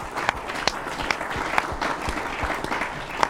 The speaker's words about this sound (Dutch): Groot applaus voor onze winnaars van de quiz en voor jezelf.